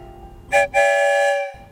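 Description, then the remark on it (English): A train whistle sounds twice as a train leaves a station, a short toot followed by a longer, sustained blast, loud with a bright, harmonic tone over a faint background rumble. “Two whistles?”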